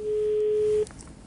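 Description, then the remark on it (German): A steady telephone line tone during a live phone call hums loud and clear for just under a second, then cuts off abruptly, leaving only faint background noise. “Ich mach nie wieder ein Telefongespräch live. Das bringt ja echt gar nichts.”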